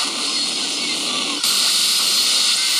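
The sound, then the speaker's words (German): Dial-up modem-style noise plays from a vinyl record: a steady, loud wash of harsh hiss with a thin sustained tone running through it, jumping to a brighter, louder texture halfway through. “Das klingt wie früher, als ich mich bei meinem Vater im ISDN-Modem”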